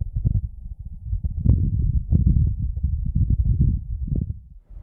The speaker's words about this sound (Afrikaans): So let's take a listen. This is the sound of wind on Mars.